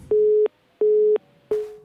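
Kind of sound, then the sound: signal or alarm, telephone busy tone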